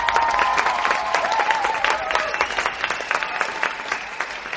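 Loud, sustained applause from an audience, a dense patter of many hands clapping steadily throughout, with a few faint whoops or cheers mixed in.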